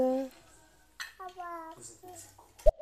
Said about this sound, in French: merci à la bonjour à la petite voix derrière, toute mignonne qu'on entend, qui est peut-être une future euh, féministe, je ne sais pas.